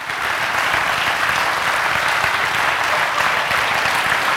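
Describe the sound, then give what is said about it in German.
Steady, dense audience applause fills the whole stretch, a continuous roar of many hands clapping at an even loudness with no voices standing out. “Warum klatsche ich eigentlich?”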